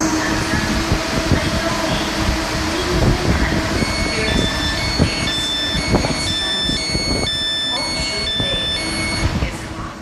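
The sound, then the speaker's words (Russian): A light metro train on a recently opened new line of the Taipei metro rumbles at the platform of Hongshuli station with clunks and hiss, while a repeating pattern of high electronic beeping tones starts partway through and continues over the steady rail noise. “Слушал, конечно, но мне кажется, мы сейчас на станции метро Хуншули, и я логично угадал, что это связано с э, легким метро.”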